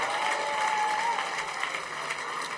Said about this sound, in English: Is that your clap? You're, you're clapping as if you are jealous.